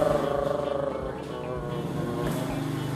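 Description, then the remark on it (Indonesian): A Supra X motorcycle engine drones steadily for a few seconds as it passes by at a boarding house, its buzzing hum holding an even pitch before shifting slightly as it goes by, with faint voices underneath. “Supra X nya maaf ya karena memang kita di kos-kosan lebih autentik aja sih ya.”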